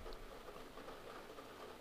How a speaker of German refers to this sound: Alter, ah. regnet so krass gerade. Scheiße, Mann.